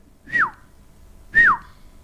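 Two short, clear whistles from a person calling someone, each sliding quickly downward in pitch, spaced about a second apart, loud against a quiet background with no talking.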